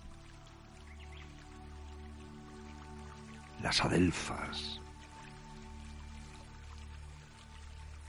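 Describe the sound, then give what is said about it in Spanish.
Water trickles and drips steadily in the Río Dulce, a river in the province of Guadalajara, in summer, a soft continuous babble throughout, with nightingales in the background and a man speaking a brief phrase about halfway through. “Acercaros, escuchad, bañaros, beber agua morrillo, los ruiseñores al fondo”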